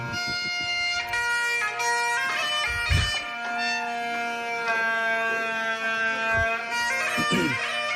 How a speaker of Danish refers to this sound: De har fundet ud af, at de har nogle skotske aner og det skal fejres. Og det skal ske med sækpip. Og så kommer det her.